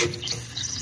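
A steady hiss of air escaping from a radiator valve, with a faint watery gurgle mixed in, continuing unbroken for under a second with no voices.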